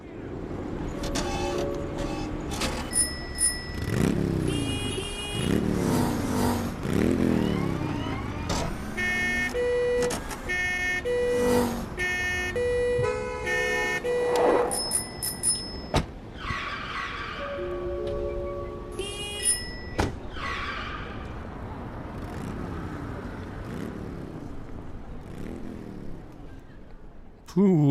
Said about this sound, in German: Also in welchem Takt klingen hier die Autos, Fahrräder, Feuerwehren?